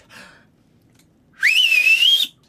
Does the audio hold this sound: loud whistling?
yes